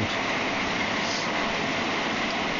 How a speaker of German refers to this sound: Ähm, es gewittert ein bisschen. Ich weiß nicht, wie viel, wahrscheinlich hört man sehr viel Regen, weil ich halt unter so einem scheiß Blechdach stehe. Äh, man hört das sehr gut.